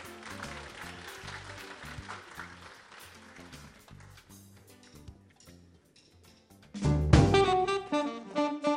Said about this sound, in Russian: Аплодисменты.